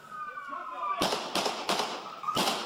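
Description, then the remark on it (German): Four loud, sharp gunshots, fired by police at an 18-year-old man with a knife on a train, ring out in quick, slightly uneven succession, each bang echoing briefly, after a moment of muffled background noise and a faint tone; recorded by a passerby on an iPhone. “Es fallen neun Schüsse.”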